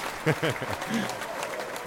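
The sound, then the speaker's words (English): A voice speaks briefly near the start over a played applause sound effect: many hands clapping in a dense, even patter at moderate volume that carries through to the end. “By the way, if Tony was still there, he would have put the applause on there for oh. himself.”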